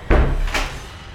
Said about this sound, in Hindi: तभी ओटी का दरवाज़ा जोर की आवाज़ के साथ खुल गया